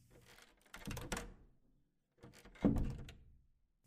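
A bedroom door creaks open in two fairly loud bursts, each with knocking, thunking handling noises, separated by a short silence, at night around 2 a.m. No one speaks.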